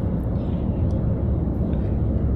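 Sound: car interior noise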